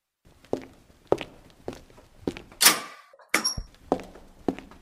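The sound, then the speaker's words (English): Steady footsteps of a woman walking into a back room at an even pace, fairly clear, with a brief sharp clatter and knock partway through before the steps carry on. No one speaks. “She walks into the back with footsteps to see four members surrounding the body and one member mopping up the bloodstains on the floor, not touching the body yet.”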